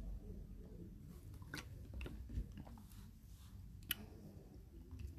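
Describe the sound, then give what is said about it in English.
Drinking water: soft wet mouth clicks and a few gulping swallows spread over several seconds, quiet and intimate, with no talking. “But, um, hold on, I'm drinking this water.”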